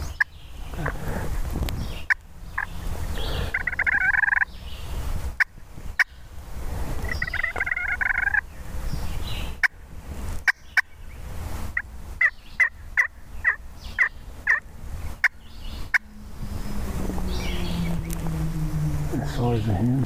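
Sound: wild turkey gobbling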